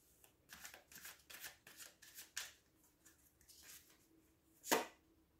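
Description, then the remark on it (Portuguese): A quick run of soft riffling tarot card shuffles, a dozen or so papery flicks in an uneven rhythm, fairly quiet, ending with one sharper slap of cards. “Já era necessário três cartas para vocês.”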